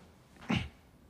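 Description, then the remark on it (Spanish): A single quick sneeze, a short sharp burst that fades within a fraction of a second, heard on its own against a quiet background with no one talking. “Salud. Como poquito. Salud.”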